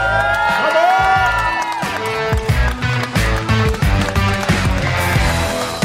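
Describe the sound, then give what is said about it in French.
A loud crowd cheers and whoops continuously for several seconds for the hosts of Les Antipodes de la lutte as they are introduced, a dense wash of voices with sharper shouts and claps breaking through toward the end. “Mesdames, Messieurs, faites du bruit pour”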